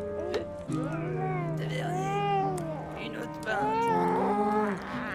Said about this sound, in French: Les pleurs de l'enfant sortent de leur torpeur les ivrognes courroucés par le bruit.